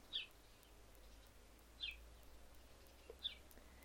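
Three short, high bird chirps spaced about a second and a half apart, fairly faint, over a soft steady outdoor hum with no voices.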